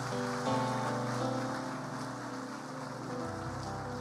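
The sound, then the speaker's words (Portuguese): A church audience applauds for Jesus at the preacher's call at the close of a sermon, a dense, even crackle of clapping that holds for the full four seconds, with sustained musical tones droning underneath and no talking. “Pode aplaudir, pode aplaudir, pode aplaudir.”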